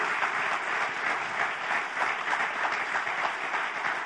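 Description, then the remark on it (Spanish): An audience at a morning church service applauds "the one who lives" steadily, many hands clapping in a dense, continuous patter that holds at an even loudness throughout, with no voices standing out. “¿Cuántos damos un aplauso al que vive?”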